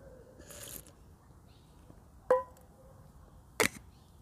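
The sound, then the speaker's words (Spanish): A quiet sip of coffee, followed by a sharp clink like a mug being set down and another short, breathy slurp, fairly soft amid otherwise quiet surroundings. “Me gusta tomar café mientras grabo los podcasts porque me trae presencia, porque lo huelo, lo saboreo”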